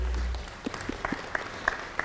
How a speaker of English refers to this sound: Everyone clap. Yes, that was good.